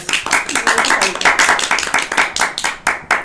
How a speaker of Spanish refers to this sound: Pues un aplauso ya para ah, despedirnos.